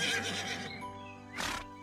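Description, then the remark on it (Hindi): A horse gives a loud, quavering whinny, its pitch wavering and fading, followed by a short breathy snort. No one speaks. “चूहे ने फटाक से जाल को काट दिया जिससे घोड़ा आज़ाद हो गया”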